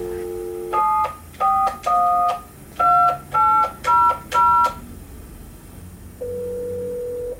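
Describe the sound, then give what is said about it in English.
Touch-tone phone dialing for a prank call: a brief dial tone, then seven clear, evenly paced keypad beeps, a short pause, and a steady ringing tone on the line, all fairly loud and with no talking. “the next thing that happens in the story is the prank call.”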